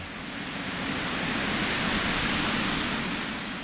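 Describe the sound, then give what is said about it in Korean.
Wind sweeps through reeds in Ushtobe in a steady, broad rustling hiss that swells a little in the middle and eases off toward the end, with no voices. “여기만 오면 그 옛날 우리 고려인들이 얼마나 고생을 했을지 저 갈대 소리가 고려인들 울음소리로 들릴 때가 있어요.”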